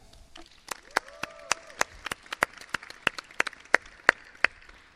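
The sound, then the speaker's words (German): Scattered applause from a small audience for the evening's musical support: a steady run of sharp, distinct hand claps lasting several seconds, with a faint voice briefly audible underneath near the start. “Aber könnt schon mal Applaus machen für die musikalische Unterstützung des Abends für Fräulein.”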